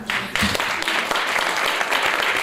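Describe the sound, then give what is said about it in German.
An audience applauds steadily, a dense wash of many hands clapping at once with sustained, fairly loud intensity and a few sharper claps poking through, applauding author Noah Gordon at the 2013 Berlin premiere of the film adaptation of his bestseller Der Medikus. “Applaus für Noah Gordon bei der Premiere der Verfilmung seines Weltbestsellers Der Medikus 2013 in Berlin.”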